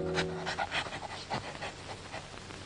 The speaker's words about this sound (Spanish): Con el hocico pegado a la tierra, huele que huele, viene la perra, siempre siguiendo la pieza mejor para su dueño el cazador.